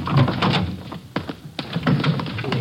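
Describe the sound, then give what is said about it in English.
A door is opened with a cluster of sharp clicks and knocks from the latch and handle, then a few soft thunks as it swings and settles. No one speaks. “Just a minute, I'll get the door here.”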